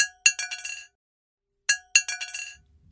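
A key falls from a hand onto an upturned plate twice, each fall giving a bright ringing clink followed by several quick bouncing rattles that settle into a sustained tone, clear with no talking.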